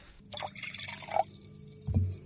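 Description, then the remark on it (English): Water splashes and trickles into a wine glass for a couple of seconds, with a bright clink partway through and a low thump near the end, fairly quiet. “What we want to do is put a little bit of water into the glass.”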